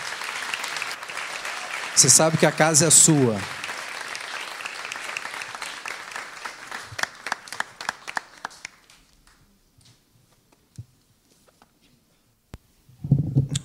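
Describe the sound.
In a church, an audience applauds a musician and his band steadily for several seconds, a dense wash of clapping that fades out, with a man speaking over it midway and a few scattered claps and a voice near the end.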